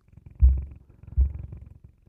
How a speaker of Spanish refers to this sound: Escucho que incrementa la vibración del juguete y también sus gemidos.